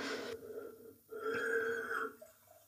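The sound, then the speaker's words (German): White wine with a slight yellow tint pours into a glass in a short gurgling stream, its hollow tone shifting as the glass fills, then a brief higher note as the pour ends. “dann wären wir mal beim Einschenken, oder?”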